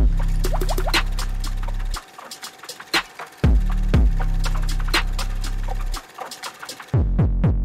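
Water is poured into a glass, a gurgling, splashing stream with sharp clinks and drips, set over a steady low hum that cuts out briefly twice.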